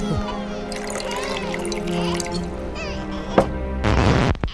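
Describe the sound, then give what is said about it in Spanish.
Nanche liqueur pours in a brief, splashy rush toward the end, a bright hissing gurgle that lasts under a second and rises over a steady, sustained musical background. “Dale un traguito al licor de Nanche.”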